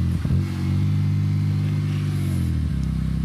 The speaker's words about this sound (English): The second interview we did was with Nani, the uh, driver of the Dakar Prodrive car, and he's just come back from one of his test drives. He's going to try and run us over.